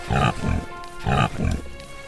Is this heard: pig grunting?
yes